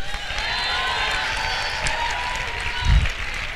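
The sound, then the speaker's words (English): A large crowd claps and shouts together as a shout of praise to God, a sustained, dense wash of applause and cheering, steady and fairly loud, with a brief low thump near the end. “If you're a daughter tonight, I just want you to give God a shout of praise.”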